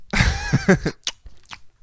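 Wet, close-up smacking and chewing noises right at the microphone, starting with a short voiced murmur and followed by a few sharp, sticky mouth clicks.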